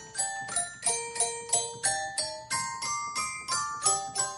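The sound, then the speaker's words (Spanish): A gameleste, a gamelan-celesta hybrid mixing an indigenous Indonesian instrument with a percussive piano with steel bars, plays a steady melody of bright, bell-like struck notes, roughly three per second, each ringing briefly and clearly with no voices present. “instrumentos inventados por ella misma, como el gameleste, una mezcla entre un instrumento autóctono de Indonesia y un piano percutor con barras de acero que suena algo así.”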